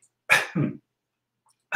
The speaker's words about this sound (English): oh, excuse me.